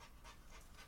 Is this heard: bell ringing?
no